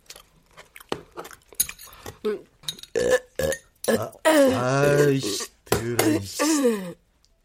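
A run of loud burps from a person with poor digestion after eating, short croaks at first and then long drawn-out belches with a wobbling pitch, the last one fading into silence.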